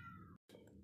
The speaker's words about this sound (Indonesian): Wah oh, sorry tadi ada suara kucing yang mengeong-ngeong lagi dikurung kayaknya dan saya tag juga di tengah rumah sih sambil hujan juga nih malam ini tag malam